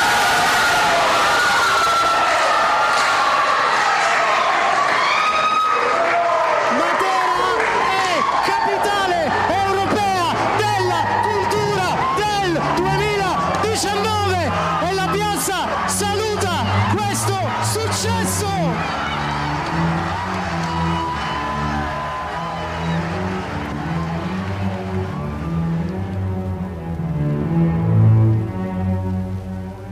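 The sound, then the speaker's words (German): A large crowd cheers and shouts loudly and continuously, with excited whoops and overlapping voices swelling into a sustained roar of celebration, as Matera, Italy, is announced as European Capital of Culture 2019. “Überraschung, Jubel, Freude.”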